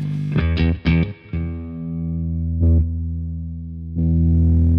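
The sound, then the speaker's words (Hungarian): An electric guitar rings out through a switched-on overdrive pedal: a few quick distorted strums, then long sustained gritty chords that swell again near the end, loud and harmonically rich with no talking. “azt nem fogjuk kivágni, hogy akkor most bekapcsoljuk a pedált.”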